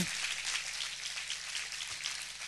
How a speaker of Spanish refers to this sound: Vamos, darle fuerte ese aplauso al Señor.